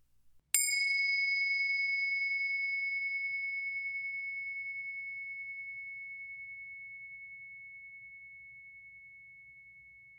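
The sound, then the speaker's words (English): A single meditation bell is struck once and rings out with a clear, pure tone that slowly fades over about ten seconds in otherwise quiet surroundings. “First, let's settle in together with the sound of the bells.”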